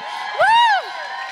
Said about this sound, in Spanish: Hoy es muy especial porque estamos grabando hoy en vivo con toda nuestra audiencia aquí de Cautivante. Chicas, saluden.